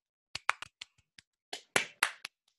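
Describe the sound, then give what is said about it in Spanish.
A brief round of applause welcoming a special guest: about a dozen scattered, uneven hand claps, crisp, swelling slightly toward the end before stopping. No one speaks. “suenan aplausos”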